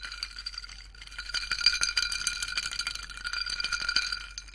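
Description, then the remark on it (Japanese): A glass knocks against a microphone, clinking repeatedly over several seconds, a busy rattle of small bright taps with a high, ringing shimmer sustained beneath them. No voices. “とか言いつつマイクにグラスをぶつけたので その部分をカットしました。”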